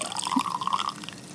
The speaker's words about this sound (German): Es ist immer interessant, so umso höher der Strahl, das Strahlgeräusch wird, umso voller ist das Glas. Ja. Der Hohlkörper wird kleiner. Der Resonanzkörper, ja.